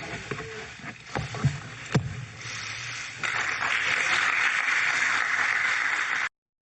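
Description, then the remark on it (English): A few scattered sharp claps from reporters give way to a steady, dense crackle of applause, holding at an even level for several seconds before cutting off abruptly, at the end of a speech by Biden. “Those were reporters clapping, by the way.”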